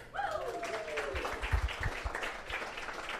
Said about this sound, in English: We're gonna give him a round of applause.